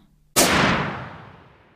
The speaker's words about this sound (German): Der Wissenschaftler hielt daraufhin kurz inne, bis er auf das Herz des an die Liege gefesselten Mannes zielte und einen Schuss abfeuerte.